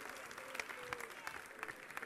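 A crowd applauds steadily, many hands clapping in a dense, continuous patter with a few sharper claps standing out. The applause sounds somewhat distant and fills the whole short stretch.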